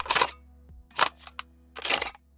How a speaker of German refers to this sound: Natürlich darf das ja auch nicht fehlen, eine Musikkassette beziehungsweise der Klang davon, wie man eine einlegt in einen Kassettenrekorder.